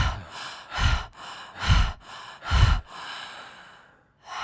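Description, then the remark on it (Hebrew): Three deep, forceful breaths at a steady rhythm during a breathing exercise done in rounds of five breaths, each a loud rush of air, with quieter breathing between them and no talking. “אז זה הולך בסט כזה, של 4, 5, 20 נשימות כאלה.”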